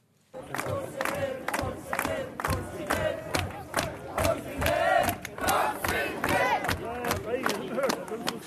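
A crowd of several hundred cheers and shouts loudly without pause, welcoming the Kongsvinger football team home to Kongsvinger in the evening after the cup final, with sharp rhythmic bursts, like clapping or stamping, punctuating the roar about twice a second.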